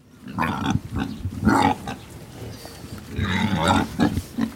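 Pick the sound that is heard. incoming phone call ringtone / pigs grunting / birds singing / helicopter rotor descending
pigs grunting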